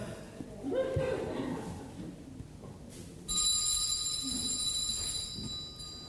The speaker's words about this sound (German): Er hat eine Idee. Er versucht's mit einer Glocke.